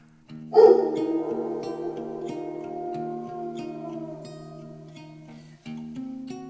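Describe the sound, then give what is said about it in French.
A single long wolf howl at the full moon rises sharply, then slowly sinks and fades over several seconds, set against a low, steadily pulsing musical drone with no voices. “Si bien que personne n'entend le vrai loup applaudir à sa manière en hurlant à la pleine lune.”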